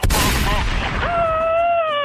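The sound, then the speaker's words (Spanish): A single sharp, loud gunshot cracks at the start, its noisy echo trailing off while a sustained wavering tone, like a groan, rises up and holds to the end. “Pero te me doblas al primer disparo.”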